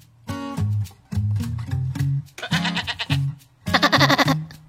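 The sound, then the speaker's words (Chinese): A person imitates a sheep's bleat in a series of wavering, nasal "baa" calls, some short and some drawn out, with a trembling pitch and loud, strained bursts near the end. “我小时候一直觉得自己学羊叫的声音学的特别好，像不像？咩。”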